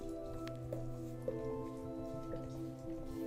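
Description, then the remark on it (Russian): Soft, wet squishing and smacking sounds from a dog licking a person's burned hand, coming in a few quick irregular laps over a steady low background hum, fairly quiet. “Собака лежит мне обожженную руку.”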